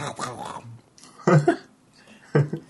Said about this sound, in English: how noisy are these crackers I'm about to eat? Very.